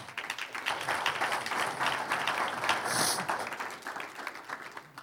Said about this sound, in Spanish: Un aplauso al que vive.